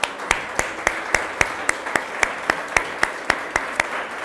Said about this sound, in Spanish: Vamos a darles un fuerte aplauso a estos.